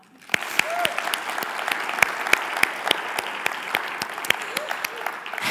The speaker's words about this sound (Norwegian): Og parentesen der er …, takk for at dere leder oss så nydelig i dag. Ja, skal vi gi dem en klapp til? Ja.